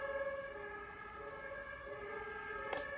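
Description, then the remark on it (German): Emergency vehicle sirens wail steadily, their sustained tones holding over a low background rumble, with a brief sharp noise burst near the end. “Jetzt schon wieder diese Sirenen.”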